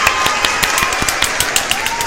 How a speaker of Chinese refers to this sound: 非常期待，我们先帮自己拍手下。